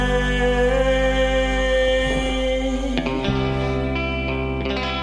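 A song plays on the radio at steady volume, its instrumental part carrying layered, sustained chords washed in reverb and effects, with a sharp accent and change in harmony partway through and no voices.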